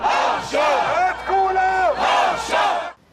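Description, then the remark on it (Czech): A crowd at a rally in support of hostages in Tel Aviv chants in unison, loud and sustained, with drawn-out rising and falling phrases repeated in a steady rhythm before cutting off abruptly at the end. “o pár ulic dál se konalo schromáždění na podporu rukojmích. O poznání klidnější, ale i zde byly jasné emoce.”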